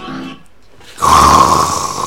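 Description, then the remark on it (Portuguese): A person snoring: a soft breathy inhale, a brief pause, then one loud, rasping snore with a buzzing nasal tone that holds steady for about a second. No one speaks. “ainda tá dormindo.”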